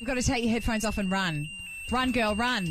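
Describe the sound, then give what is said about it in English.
A steady, high-pitched electronic alarm tone rings continuously at a constant pitch while someone talks loudly and urgently over it; the alarm is a reminder to urinate, set to go off every 30 minutes. “Okay, that's the alarm. It's the wee alarm.”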